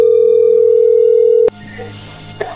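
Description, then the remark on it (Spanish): A steady, mid-pitched telephone tone hums loudly for about a second and a half, then cuts off abruptly with a click as the call connects, leaving faint line noise. “Ahí entró la llamada, llégale.”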